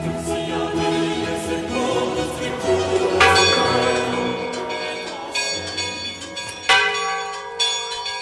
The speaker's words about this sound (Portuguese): No capítulo anterior da série Sinos, você acompanhou relatos sobre o que dizem os toques dos sinos.